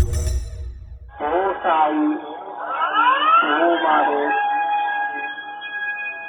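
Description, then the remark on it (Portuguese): A public earthquake warning alarm recorded in the city of Soma, Fukushima Province: after a brief low rumble, a wavering chime-like tone sweeps up and down, then settles into a steady sustained electronic tone, moderately loud, with no talking over it. “Então, a Valéria me enviou o, o alarme gravado pela amiga dela aí na cidade de Soma, que fica na província de Fukushima.”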